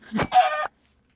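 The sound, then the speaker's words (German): A video-game chicken lets out a short, startled squawk as it is hit, a quick cluck running into a harsher drawn-out cry, fairly loud, then silence with no voices. “Ja, ein paar Hühner werden weggefetzt, Alter.”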